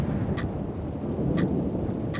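Heavy rain pours steadily over deserted streets at night, heard from an empty clinic, with a deep, continuous rumble like thunder underneath and lightning cracking from the sky. Three brief, sharp crackles break through at even intervals. No one speaks.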